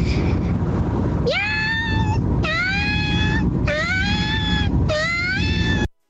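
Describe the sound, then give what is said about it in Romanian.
Four long, drawn-out wailing meows like a distressed cat, each rising then sagging in pitch, evenly spaced over a steady noisy background; it could be a voice imitating the cat. “Pisică în suferință.”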